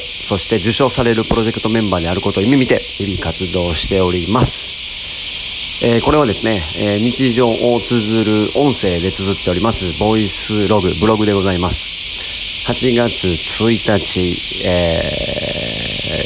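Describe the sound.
Loud, dense buzzing of a great many cicadas fills the air outdoors on a summer day in very fine weather, a constant high-pitched drone that never lets up while a man talks steadily over it.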